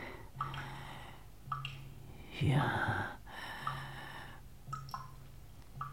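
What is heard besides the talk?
water dripping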